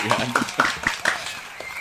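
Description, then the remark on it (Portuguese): A brief, scattered burst of audience clapping welcoming two guests, a film critic and a journalist, with irregular sharp claps over a murmur of voices and some cheering, fading out after under two seconds. “Uma salva de palmas.”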